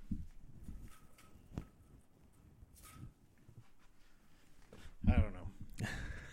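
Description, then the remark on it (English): Something tumbles down a set of stairs: a series of irregular, muffled thumps and knocks spaced a second or so apart, building to a louder, busier clatter near the end. “Um, sounds like something tumbling down a set of stairs.”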